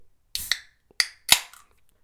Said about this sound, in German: Und das wird dann auch natürlich ordentlich zelebriert mit einem Geräusch der geöffneten Bierdose hier. Achtung.